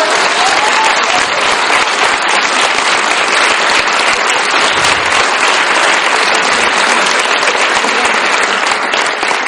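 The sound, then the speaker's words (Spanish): An audience claps steadily and loudly for several seconds in applause for a woman, a dense, even wash of many hands with no voices standing out above it. “Un aplauso para ella.”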